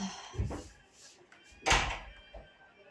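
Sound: door being shut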